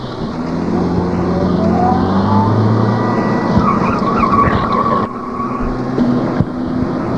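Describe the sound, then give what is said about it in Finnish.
A car pulls away with tires squealing and skidding, its engine droning steadily throughout, loud, with a brief dip in the noise before the screech resumes. “Ja no nyt meillä on joka tapauksessa auto ja minä toimin kuskina.”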